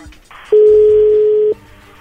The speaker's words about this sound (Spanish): Bien, entonces ahí le va a marcar, no haga ruido, por favor.